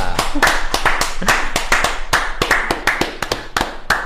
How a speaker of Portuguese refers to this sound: Todo é artista gosta de palmas. Mano, mano, mas eu vou te falar. Todo gosta de bater palmas também.